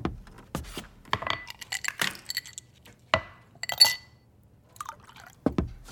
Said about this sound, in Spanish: Entro al área de la cocina, coloco mis llaves en el plato y me preparo un trago.